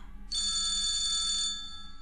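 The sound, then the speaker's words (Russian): A landline telephone rings once in a bright, trilling electronic burst lasting just over a second, clear, then stops, leaving a quiet low hum behind. “Это был городской телефон.”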